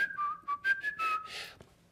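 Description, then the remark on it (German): A person in a garden whistles a signal of three short and three long notes that their cat recognised them by: a quick series of clear, high notes, several short blips followed by slightly longer tones, fairly loud with no talking. “Und das konnte ich mir so gar nicht vorstellen und bin dann rausgelaufen in den Garten und ich hatte so ein Pfiff, den, an dem meine Katze mich erkannte. War immer so dreimal kurz, dreimal lang.”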